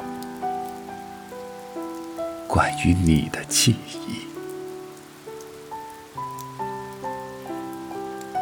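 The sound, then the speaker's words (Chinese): Rain patters steadily against a window beneath soft, sustained musical tones, and a voice speaks briefly in the middle before the gentle music and rain continue. “受着一窗的雨，像翻阅”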